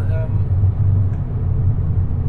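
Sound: inside a car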